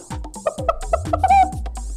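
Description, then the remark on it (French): A voice imitates a hen, giving a quick series of about six short, clipped clucks that end in a slightly longer, drawn-out cluck, moderately loud with no other talking. “Alors les amis, vous aimez les animaux Écoutez la poule”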